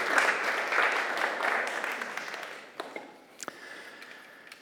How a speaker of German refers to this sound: Gibst du einen Applaus?